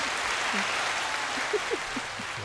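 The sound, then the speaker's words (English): A clapping sound effect: a steady wash of applause, many hands clapping in a dense, continuous patter at an even level for the whole stretch, with a few faint murmurs underneath. “In ours, it's like a little clapping emoji, but it's the same.”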